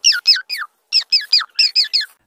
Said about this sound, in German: Dicke, fette Vögel kreuzen ihren Weg und geben unromantische Laute von sich.